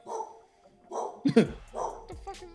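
A dog barks several times, a few loud, sharp barks with short whiny yelps in between, spread irregularly across a couple of seconds.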